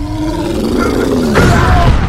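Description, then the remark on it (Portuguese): A huge, loud explosion blast: a deep roaring rumble that swells and then bursts sharply about halfway through, with heavy low booming filling the whole short clip. “Uma explosão enorme ressoou, jorrando o ar quente e os jogando para trás.”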